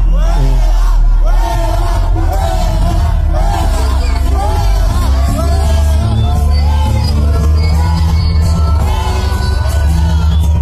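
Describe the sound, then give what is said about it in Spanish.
A concert crowd of about 10 people shouts a repeated "fuera, fuera" chant in unison, loud and continuous, with voices overlapping over a deep, steady low rumble from the venue. “escucha el fuera, fuera, o sea, la, banda y, no son nada más 10 personas.”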